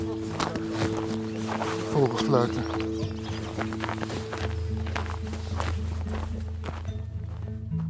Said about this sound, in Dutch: Over het sneeuwlandschap lopen we nu ergens heen.